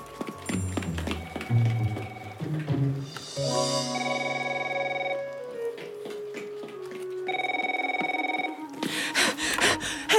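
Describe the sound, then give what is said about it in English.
A telephone in an office rings in two sustained bursts amid scattered clattering and rustling, the tones clear, with busy handling noises between and after the rings. “Oh, the phone in my office.”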